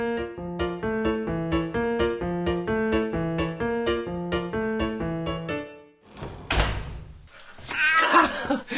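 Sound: cat meowing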